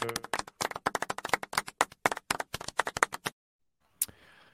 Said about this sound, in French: clap de golf euh, à ça.